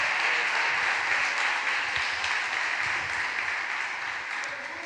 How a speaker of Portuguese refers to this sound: Tem algum crente recebendo? Dá um glória a Deus e dá uma salva de palmas ao Senhor. Glória a Deus.